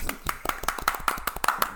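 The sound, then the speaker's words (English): An automated hand clap sound effect: a rapid, evenly spaced series of sharp hand claps, about nine in under two seconds, with a mechanical, machine-like regularity in rhythm and loudness. “this is my automated hand clap.”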